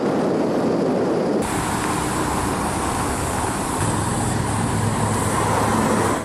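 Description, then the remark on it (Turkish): Steady, dense roadway noise of a traffic jam caused by holidaymakers in the Fethiye district of Muğla, Turkey: a continuous rumble of idling and slowly moving vehicles with a low engine drone, loud, with no voices heard. “Tatilciler trafiği kilitledi.”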